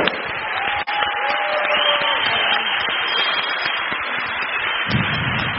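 An audience breaks into steady, dense applause that holds at an even loudness for several seconds, with a brief whistle-like cheer rising over the clapping early on.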